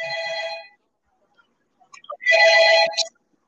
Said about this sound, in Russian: Сори, у меня э, домофон звонит, сейчас я подойду.